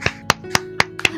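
A short burst of applause: five sharp, evenly spaced hand claps in quick succession with a softer one near the end, over a faint steady low hum, with no voices.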